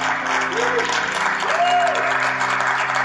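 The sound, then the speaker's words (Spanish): Sustained, loud applause from a large crowd fills the space, a dense wash of clapping that holds steady throughout, with faint rising tonal sweeps in the background. “Vamos, si tú lo crees, dale un fuerte, fuerte, fuerte.”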